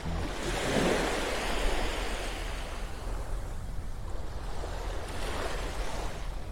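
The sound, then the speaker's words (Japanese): Gentle, calm morning sea waves at Hayama, with clear water, under a sky that is sunny but fairly cloudy and hazy. The waves wash in with a steady, soft hiss, swelling slightly around the start and again near the end, with no voices and a low rumble underneath. “葉山から朝の波音3分 LIVE”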